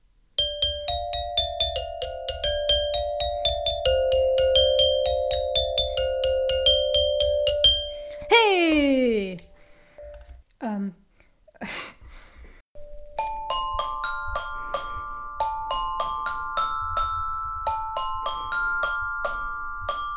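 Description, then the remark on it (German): A bright glockenspiel plays the cheerful melody of a piece in quick ringing notes over a steady low beat, breaks off briefly with a few swooping tones, then resumes the tune. “Sie hörten, interpretiert von Claudia Heidmeier auf dem Glockenspiel ….”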